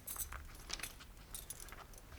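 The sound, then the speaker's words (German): The keys to hotel room number one jangle and clink together in a quick, bright cluster of metallic rattles, fairly quiet, with no one speaking. “Schlüssel.”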